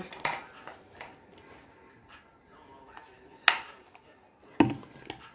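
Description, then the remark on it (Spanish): Someone drinking water: a few sharp clicks and knocks, like a glass being handled, with a soft gulping thump near the end, all fairly quiet and with no talking. “Ay, perdón, es que estaba tomando agua.”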